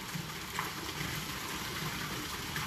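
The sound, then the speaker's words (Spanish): Steady, continuous rush of water flowing in a fountain, a dense splashing wash of sound at an even level throughout, with no voices present. “Y mientras miraba yo la fuente,”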